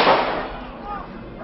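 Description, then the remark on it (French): A single loud gunshot from a handgun, fired by mobile gendarmes toward attackers in the heart of a crowd at the end of a protest march in France around 9 p.m., rings out at the start, its echo fading over about a second into a muffled rumble of background noise and faint voices. “Au moins 5 ou 6 coups de feu éclatent au cœur de la foule.”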